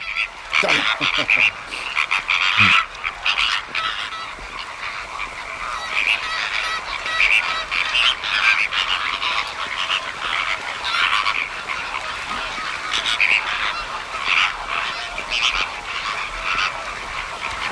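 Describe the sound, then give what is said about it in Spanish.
A feeding flock of flamingos, heads and necks down under the water, stamping in the mud of the salt pans at La Tancada in the Ebro Delta to stir up food, keeps up a dense, continuous chorus of nasal, goose-like grunts and honks, steady and fairly loud throughout, with a few sharper clicks and squawks near the start. “Con la cabeza hacia abajo y bajo el agua es normal que se quejen.”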